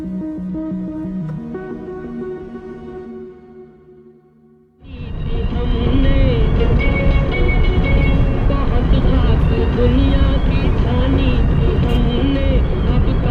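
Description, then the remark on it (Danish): A short stretch of music fades out, then loud, steady road noise and engine rumble from a civilian car driving out of city traffic along a country road toward Panjshir in Afghanistan fills the rest, continuous, heard from inside the vehicle. “Vi har fået vristet os fri af byens tætte trafik og stryger nu ud af landevejen mod det savnomsbundne Panjshir, hvor det sejlivede tajikiske bjergfolk bor.”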